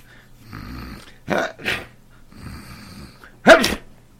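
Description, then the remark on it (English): Two loud sneezes, each preceded by a long, wheezy intake of breath, with the second burst sharper and stronger than the first. No talking. “Gesundheit.”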